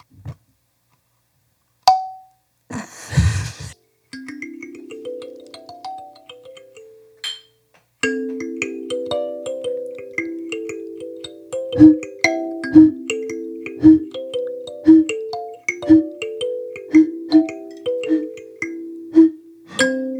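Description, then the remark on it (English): Plucked metal tines ring out while being tuned, first a brief rising run of notes, then a steady series of repeated plucks with sustained, bell-like tones. A short burst of noise occurs early on. “Hold down all the other tines while you do it.”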